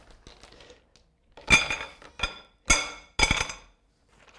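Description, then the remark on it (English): Kiowa stones clatter into a hard container in a few sharp, bright bursts, one after another, fairly loud, with quieter rattling between them and no talking. “pretty noisy, these Kiowa stones, aren't they?”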